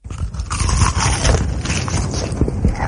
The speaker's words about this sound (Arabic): وأحلى من هذا وهذاك قرمشة تشيكن فيليه من هيرفي